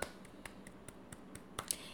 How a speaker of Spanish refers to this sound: ¡Aplauso!